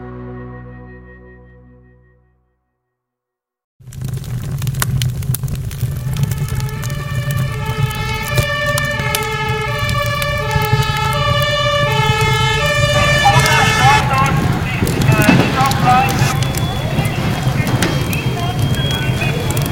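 fire engine siren

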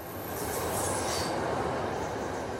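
train riding on rails

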